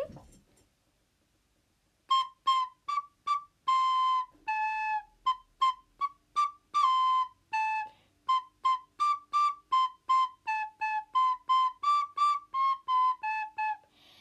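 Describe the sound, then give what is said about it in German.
A flute plays the German children's song 'Backe, backe Kuchen' alone, a steady run of short, separated notes in a bright, mid-high register, moving stepwise up and down after a brief quiet start. “Ich weiß, ich, Flöte spielen ist nicht so.”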